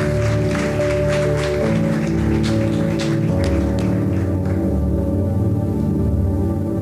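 An audience claps steadily over sustained organ-like music chords, the applause dense at first and then fading out while the music carries on. Nobody speaks.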